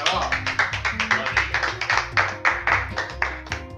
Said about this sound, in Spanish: Un aplauso.